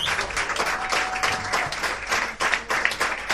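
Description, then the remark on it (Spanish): Steady audience applause for musicians after they play, a dense wash of many hands clapping at a fairly loud, even level for a few seconds with no one talking. “aplauso, por favor.”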